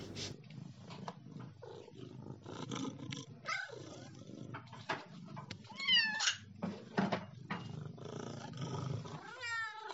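Domestic cats, named Jules Deleuze and Michel Foucault, meow and cry repeatedly as they are being fed, with high wavering calls over a steady low rumbling purr running underneath throughout.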